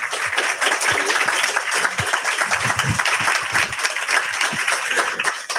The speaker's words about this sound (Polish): E, proszę Państwa, gorące brawa.